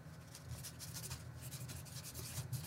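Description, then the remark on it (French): A soft, continuous dry scratching like a pen nib dragging across paper, imitated by mouth, with rough irregular strokes running steadily for a few seconds, fairly quiet. “Je sais pas si les gens l'entendent, mais t'as le, bruit d'une plume sur du papier.”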